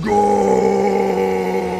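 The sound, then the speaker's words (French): An enraged dwarf warrior's roar: one loud, raw, sustained vocal bellow held at a steady low pitch for about two seconds, with no other voices. “Et il va rugir.”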